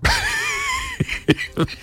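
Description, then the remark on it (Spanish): A drawn-out, wavering vocal sound gives way to three short, sharp coughs in quick succession, fairly loud, from a man who is ill. “Me, entra pues la tos.”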